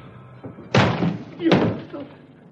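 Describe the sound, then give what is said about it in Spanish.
A judge breaks down a hotel room door: two loud, heavy crashing blows about a second apart, each ringing out briefly, with muffled voices faintly underneath. “El juez derriba la puerta.”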